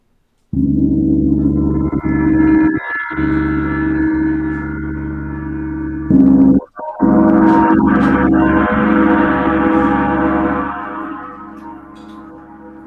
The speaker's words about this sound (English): I'm going to hit the gong twice with this mallet, so you guys can hear the bassier tone, and I cannot strike it very hard because this is heavy, and I don't want to damage the, the gong.